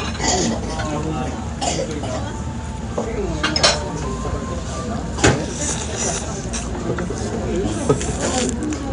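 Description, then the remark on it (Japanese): A sushi meal in progress: scattered light clinks of dishes and utensils over a steady murmur of background noise, with a few soft coughs or throat sounds and low voices. “お前食べてるだけの収録やないですかうん誕生日ですよ美味しい寿司食って何が悪いんですか”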